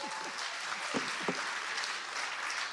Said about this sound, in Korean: 여러분 큰 박수로 청해 드리겠습니다.